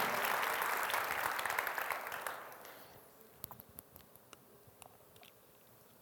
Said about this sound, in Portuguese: Aplaude direito, gente. Deus é bom demais. Aleluia.